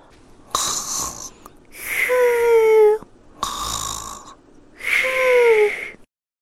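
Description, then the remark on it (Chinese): A voice imitates the snoring of a sleeping mother koala in a children's story: two slow cycles, each a raspy, breathy inhale followed by a louder, whistling exhale that slides downward in pitch. No other talk or sounds accompany it. “听着考拉妈妈的打呼声”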